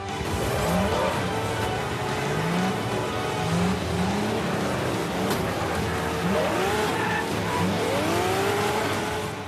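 Several racing car engines in the Bugbear video game Next Car Game Wreckfest rev and whine up and down in pitch over a constant roar, with tires squealing and crashes, all loud, with no one talking.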